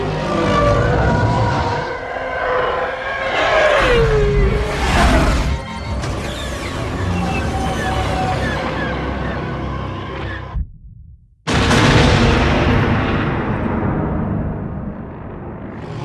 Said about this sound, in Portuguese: Pra mim, o mundo para pra ouvir a carga sísmica, sabe?